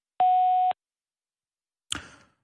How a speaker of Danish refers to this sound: Kan ikke besvare dit opkald lige nu. Læg en besked efter tonen.